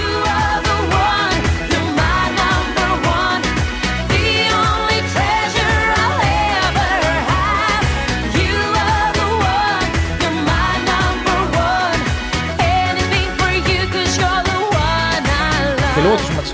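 An upbeat pop song plays loud and steady, with a driving dance beat, bright layered instrumentation and a melodic vocal line running throughout; Greece's 2005 Eurovision Song Contest entry.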